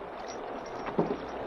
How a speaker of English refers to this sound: The great wheels churned, and the engine seemed to be laboring despite the fact that the riverboat was going downstream.